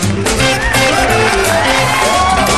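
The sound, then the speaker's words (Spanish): A large crowd cheers and applauds loudly and continuously, with scattered whoops and shouts rising over a steady roar of clapping for the whole stretch. “Aplausos muchachos, aplausos en la misa del Señor”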